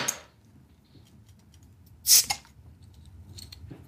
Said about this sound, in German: Achtung, ja, okay, jetzt ich mache jetzt auf, ja? Ich mache jetzt das einfach mal auf, dieses... Es ist ja auch ein IPA, also in Indien.